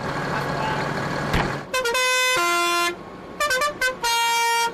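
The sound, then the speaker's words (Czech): A convoy of farmers' agricultural machines heading to Prague, Czech Republic, driving alongside the motorway because it is not allowed on it, rumbles past with steady engine noise, then loud harmonic horns blare in several bursts, some long and some short, overlapping one another. “Kolona na dálnici nesmí a tak jede podél”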